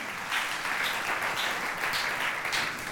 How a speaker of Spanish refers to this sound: Le dan un fuerte aplauso a su Dios y dicen, yo estoy listo.